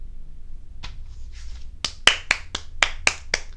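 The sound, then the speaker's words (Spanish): Sparse applause: a few soft claps at first, then a run of about eight sharp, evenly spaced claps in a steady rhythm, with no voices. “Aplausos, aplausos, por favor.”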